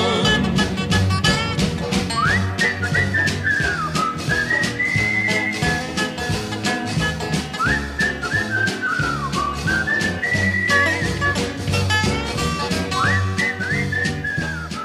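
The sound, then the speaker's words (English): A 1967 country hit song with a bright whistled melody gliding over steady band backing, the whistling rising and falling in repeated phrases, loud and up front, with no singing in this stretch. “That is called …. And that was the second big hit behind … that … had out back in 1967”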